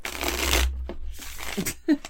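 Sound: shuffling tarot cards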